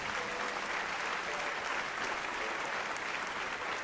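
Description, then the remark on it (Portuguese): A large church audience claps steadily and continuously to applaud the Lord, a dense wash of applause filling the space at a fairly even loudness throughout. “Vamos aplaudir o Senhor nesse momento, por isso, pessoas.”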